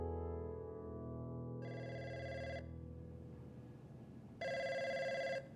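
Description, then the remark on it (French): A telephone rings in two bursts, each about a second long, with a bright, buzzing electronic tone over a low, rumbling musical background, as Domenico De Soleil receives a call in his office in London in February 1999; no one speaks. “Domenico De Soleil est dans son bureau quand il reçoit un appel.”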